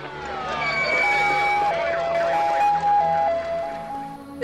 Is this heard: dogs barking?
no